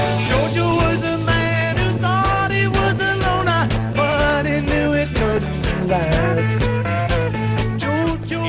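A rock band plays live with guitars, bass and drums and a singing voice over the top, the full mix steady and loud throughout without a pause.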